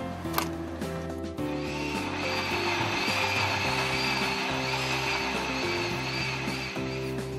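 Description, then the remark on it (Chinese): A blender grinds chili peppers for Sichuan mala hotpot broth, its motor giving a loud, steady whirring drone with a gritty, churning rattle that holds constant for several seconds after a brief surge at the start. “把四川麻辣锅的辣椒打碎炒过后加入汤头，让汤看起来更干净，口感更清爽。”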